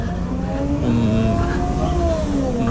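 The engine of a small Japanese rental car in the Netherlands revs steadily, its pitch rising and falling in smooth sweeps over a constant low rumble, with no voices present.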